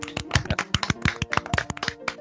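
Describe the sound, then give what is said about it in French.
A small group applauding, with dense, irregular claps overlapping in a steady patter at moderate loudness for a couple of seconds; no one speaks. “Merci, vous pouvez quand même applaudir.”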